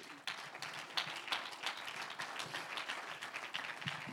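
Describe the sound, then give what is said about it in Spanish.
A crowd applauds God during a sermon, a dense patter of many hands clapping at once with sharper individual claps popping out now and then, sustained throughout without any talking. “Un aplauso al que vive.”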